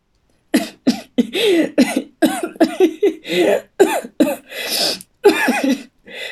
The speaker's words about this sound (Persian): به زور باز خنده می سرفه می کنم. سرفه و خنده قاطی می شود.